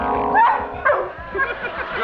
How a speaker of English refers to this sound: It's a cute puppy. Hello, Alfie. And uh, what are you going to do with Alfie? Alfie's going to play the piano with his nose and sing.